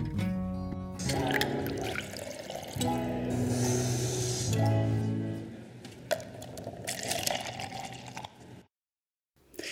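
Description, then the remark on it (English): Coffee is poured steadily into a cup, its gurgling pitch rising as the cup fills, with a few short pauses between pours before it stops. “So stick around, pour yourself a cup of coffee, put your feet up, and take a little coffee break with me.”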